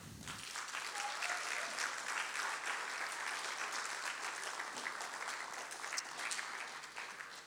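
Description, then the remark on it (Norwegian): Sustained audience applause, a dense wash of many hands clapping at steady loudness for several seconds, with no talking over it. “Kan vi gi de her en applaus, eller?”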